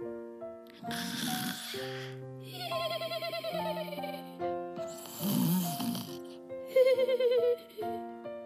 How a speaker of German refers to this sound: Leises Schnarchen drang an Merles Ohr.